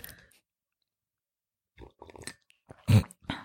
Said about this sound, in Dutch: Wel, als ik dat slurp. Dat is de eerste keer dat je slurpt?